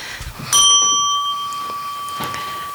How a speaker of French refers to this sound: Faudra me l'enlever cette sonnette parce que sinon je vais.